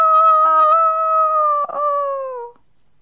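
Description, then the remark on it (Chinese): At dawn, a rooster perched high on a tree branch, flapping its wings and stretching its neck, crows as one long, loud, high-pitched call, held for about two and a half seconds, its pitch sagging gradually with a brief rough catch partway through before fading. “黎明到来了，公鸡像往常一样，高高的站在树枝上，扑扇着翅膀，伸长了脖子，啼叫起来：“啊啊啊！”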